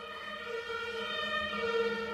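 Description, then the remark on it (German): A steady, droning emergency vehicle siren holds at a fairly even pitch for a couple of seconds, moderately loud and rich in overtones, with no talking over it. “Tatütata. Ja, wir werden abgeholt zu der After-Show-Party.”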